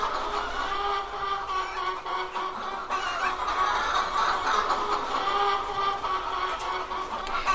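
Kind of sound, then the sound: animal, flock of chickens clucking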